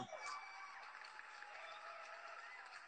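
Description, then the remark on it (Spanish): A canned crowd applause effect played back by a show host: dense, steady clapping that fills the whole three seconds at a fairly low level, with no voices over it. “Quiero precisamente darle play a los mismos aplausos que me autopuse a quien nos va a acompañar durante un poquito más de 50 minutos conversando.”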